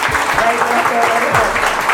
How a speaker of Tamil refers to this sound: அவங்க நல்லா கைத்தட்டலாமா